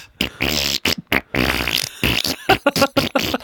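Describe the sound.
An older man blows raspberry-like mouth fart noises in a bouncy, tune-like rhythm, imitating a song, as he walks past a young woman; a string of loud buzzing bursts of varying length with short pauses between them.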